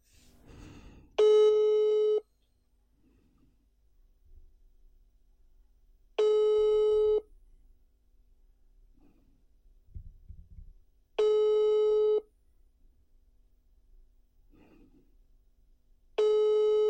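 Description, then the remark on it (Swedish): A telephone ringback tone on an outgoing call: four steady one-second tones repeating about every five seconds, clear and loud, with faint background rustles between them and no talking. “Jag trodde faktiskt du skulle få upptaget ton. Ja, faktiskt. Att det gick signaler ens.”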